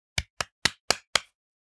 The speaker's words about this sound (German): Applaus, die Ladies.